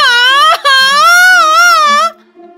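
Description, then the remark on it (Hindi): A woman cries out from back pain: a loud, high, quavering wail broken by a brief catch, then one long wavering cry that cuts off into near silence. “हाँ लगी तो है बाजू में लेकिन अभी मैं चिल्लाई कमर के दर्द से बहुत पुरानी बीमारी है उठने बैठने चलने में बड़ी तकलीफ होती है”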